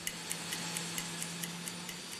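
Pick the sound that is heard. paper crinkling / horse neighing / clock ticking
clock ticking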